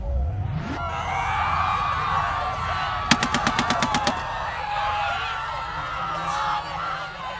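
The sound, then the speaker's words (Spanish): A rapid burst of about nine gunshots from a gun rings out in quick succession, like automatic fire, all around a room where a film is playing, cutting sharply through a constant rumbling, crowded din that continues before and after. “Podía escuchar disparos todo alrededor de la sala.”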